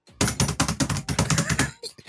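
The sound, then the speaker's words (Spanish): A rapid, loud flurry of clattering keystrokes, like frantic typing on a roll-up keyboard unrolled by a hacker in a video, imitated with the mouth in a steady burst of quick clicks lasting about two seconds. “desenrolla un, un, teclado y hace esto”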